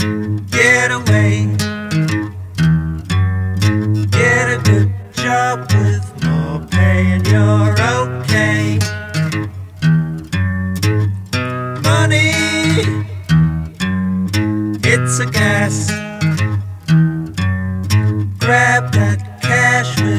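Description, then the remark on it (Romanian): A rough early demo of a rock song plays loud and continuous, with a full band sound, steady bass, and sustained chords and melody lines for the whole stretch. “să nu recunoști ce se întâmplă pe acest demo față de ce a ajuns la final.”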